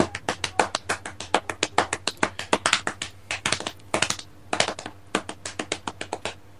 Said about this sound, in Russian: Все, вот я по животу сейчас стучу. Всегда, всегда все под рукой.